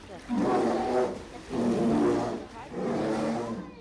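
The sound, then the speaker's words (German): Three deep, drawn-out growling grumbles from bears, each rising and fading over about a second, with short pauses between them; fairly loud, with no talking. “Nicht nur untereinander unterhalten sich die Bären brummend, auch ihre Pfleger brummen sie an.”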